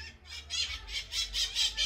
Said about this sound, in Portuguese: Só não sei onde eles estão. Não estou conseguindo ver eles não. Ah, olha. Não sei se é uma maritaca. Não se... lá. Não sei se é uma maritaca ou o que que é.